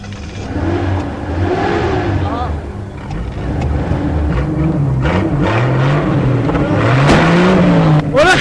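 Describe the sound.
An ambulance's engine, started during repair at a workshop, runs loudly throughout and is revved several times, its pitch climbing and falling in repeated surges, with the strongest rise near the end. Voices can be heard faintly underneath.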